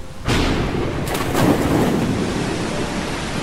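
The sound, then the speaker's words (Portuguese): Heavy rain pours steadily as thunder rumbles low and continuous during a storm at sea, with a brief swell of louder crashing around the middle, after a short quiet start. No voices. “A calmaria inicial logo deu lugar a uma terrível tempestade”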